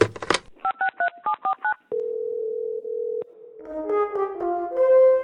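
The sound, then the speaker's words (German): A quick run of about seven dual-pitched telephone keypad tones beeps in rhythm as a call is dialed, followed by a steady dial tone lasting over a second, then a brighter ringing chord swells at the end. “Wir haben ein paar Anrufe.”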